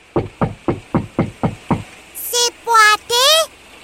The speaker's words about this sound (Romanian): Stai, stai, stai! Să batem întâi la ușă! Ah, bine!